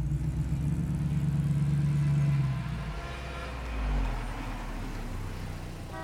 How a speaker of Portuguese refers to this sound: Ele observa o carro partir e outro carro para de repente.